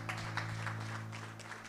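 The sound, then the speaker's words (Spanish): An audience applauding the Lord at a morning church service, a dense, steady wash of many hands clapping at an even level throughout, with a low sustained musical hum underneath. “un aplauso al Señor pueblo en esta mañana.”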